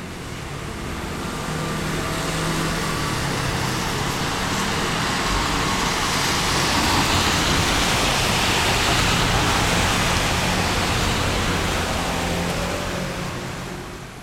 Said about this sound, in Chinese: 有没有觉得非常的熟悉？这个事实上是马路的声音哦，而且是我在这几天寒流最最猛、最强的时候所录下来的街头的声音。呃，即便那个时候街上没有什么人，只有零星的两三部车子，那用录音设备录起来，其实声音还是非常的大的。